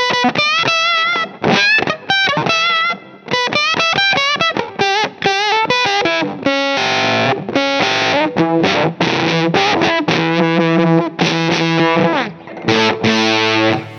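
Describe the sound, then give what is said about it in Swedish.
An electric guitar, a Telecaster, played through an octave fuzz with the tone rolled back, giving a buzzy, slightly muffled distorted sound; a run of quick picked single notes and short phrases, with a few sustained notes ringing out. “Men är det inte så med oktavfassa, det kan inte, det är väldigt svårt att spela mer än en ton i taget för de bryter ihop liksom.”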